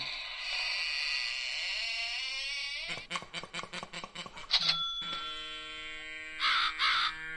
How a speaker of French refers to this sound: Ah, ben le corbeau. Voilà, c'était pour moi, la corneille.